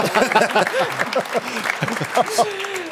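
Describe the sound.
Audience applause: a steady wash of many hands clapping at moderate loudness, continuing throughout while a man talks over it.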